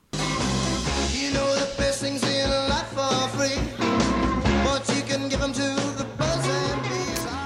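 An upbeat 1960s rock band plays a cover loudly and steadily, with driving drums, bass and guitars in a danceable groove. There's no talking over it.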